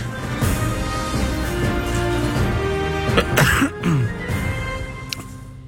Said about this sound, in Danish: Nej, jeg kan ikke flere. jeg er helt fyldt op med host.